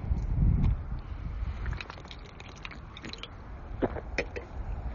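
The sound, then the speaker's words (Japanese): Someone drinks a beverage: a low rumble of handling, then soft wet mouth clicks and small gulping sounds, faint and irregular, with no talking. “ちょ、飲も”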